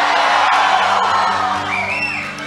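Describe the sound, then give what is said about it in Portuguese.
A large crowd at a religious service roars with shouts, whoops and cheers when the preacher asks them to shout, a dense, loud wall of voices filling the space, with one high rising whoop standing out near the end. “Onde está esse povo que sabe gritar?”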